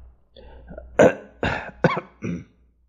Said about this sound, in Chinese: …连连咳嗽，他发言说。